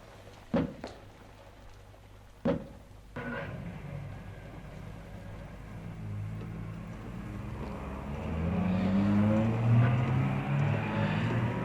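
Two sharp thuds like car doors shutting, then an engine starts and rumbles steadily, swelling louder as the car pulls away and accelerates. No one speaks.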